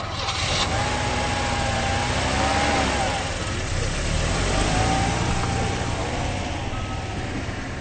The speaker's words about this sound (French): Vous avez certainement reconnu le bruit chevrotant du moteur de la voiture de Philippe. Elle ne veut pas démarrer.